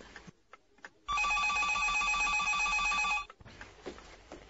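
A telephone bell rings loudly in one continuous burst of rapid metallic trilling lasting about two seconds, with quieter room sounds before and after.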